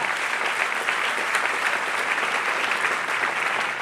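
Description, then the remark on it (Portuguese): An audience applauds in a dense, steady wash of clapping that holds at an even, fairly loud level throughout, with no voices standing out above it. “Então aplauda ele forte, que ele nos ajude a praticar isso.”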